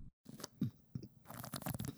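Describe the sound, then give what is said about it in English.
Someone gargles a Gaytime at the microphone, producing wet, bubbling gurgles in irregular bursts that grow busier toward the end, with no talking. “He's gargling the Gaytime.”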